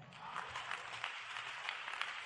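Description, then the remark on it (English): A church audience claps in a steady, subdued patter, the hand claps blending into a soft continuous wash that never builds in intensity. “Your clapping is sick, your shouting is low, your screaming is weak.”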